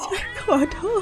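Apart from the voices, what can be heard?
kittens meowing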